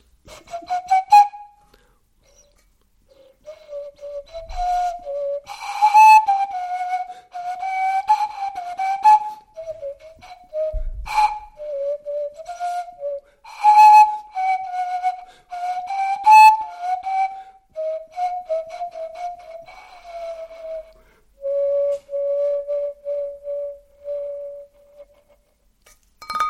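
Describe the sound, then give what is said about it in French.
Breathy, whistle-like notes made by blowing, not whistling, across a small hole in the handle of a metal fondue pot (caquelon), varying the angle, play a wandering tune for almost half a minute, fairly loud, with a few sharp metallic clicks. “un beau caclon euh, métallique, hein, mais contrairement à l'idée qu'on pourrait se faire de faire un, un instrument de percussion, il y a un petit trou dans le manche qui nous permet de faire des notes.”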